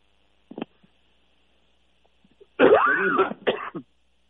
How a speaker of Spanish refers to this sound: El del catarro, sí, pero no te preocupes que eh, estoy tosiendo en, el, en, en, un pañuelo, pero no tengo coronavirus, porque no tengo fiebre.